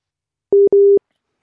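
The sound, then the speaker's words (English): A telephone busy tone sounds twice in quick succession after a phone call with a guest on air drops, two steady mid-pitched beeps, clear, with no voices, followed by a brief faint rustle. “we may have lost him again. Unless someone else is ringing him at the same time.”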